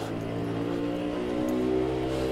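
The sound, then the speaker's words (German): A small red three-wheeled car's engine drones loudly and steadily, a buzzing, harmonic whine that swells slightly as it revs, with no voices over it. “Das ist übrigens das rote Pipifax-Auto, was hier so rumlärmt.”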